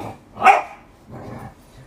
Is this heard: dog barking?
yes